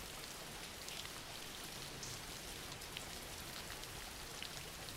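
Steady rain falls continuously, a dense, even hiss with faint scattered drops pattering on a surface. The level stays constant throughout, with no voices.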